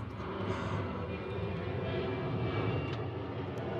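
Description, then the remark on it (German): Low-flying airplanes from Düsseldorf Airport roar steadily overhead near the airport, a loud, continuous engine rumble with broad high-frequency hiss filling the whole stretch, no voices present. “Und wie ihr wahrscheinlich jetzt im Hintergrund hört, gleich fliegen hier sehr tief die Flugzeuge vom Düsseldorfer Flughafen.”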